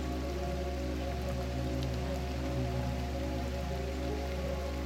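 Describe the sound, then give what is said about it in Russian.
Water sprinkles down from a watering can onto the last flower bed on a hot summer day, a steady, even patter of drops on leaves and soil that continues unbroken at a soft volume. “Профи поливает последнюю клумбу.”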